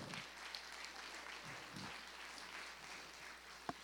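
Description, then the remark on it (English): A crowd at a church gathering claps steadily for a woman in a dense, continuous wash of applause, with one sharper clap or knock standing out near the end. “So give her a hand.”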